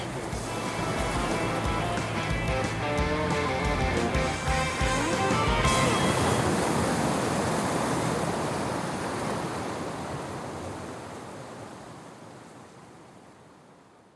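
Ocean surf breaking on the shore washes in with a broad, rushing roar, first beneath a few seconds of music, then alone as the wave swells and slowly recedes into quiet.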